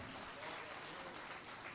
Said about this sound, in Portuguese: Aplaude a Deus, aplaude a igreja. Aplaude mesmo